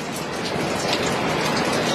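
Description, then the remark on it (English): Heavy rain pours down along a flooded coast in a dense, steady, loud hiss, with drops pelting hard against surfaces and no break in the downpour. “Well, we're still getting pelted with rain.”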